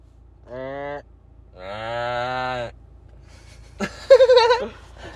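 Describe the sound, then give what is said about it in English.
A person imitates a goat call with three loud bleats: two drawn-out nasal calls followed by a shorter, trembling, wavering one, with brief pauses between them. “Oh, dude, you're doing a goat call like a goat. You sound like a goat.”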